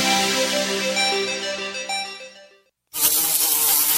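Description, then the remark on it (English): A housefly buzzes steadily with a dense, harmonic drone that wavers slightly in pitch, cuts out briefly to silence, then resumes loudly. “Houseflies defecate every four to five minutes, spreading diseases and germs.”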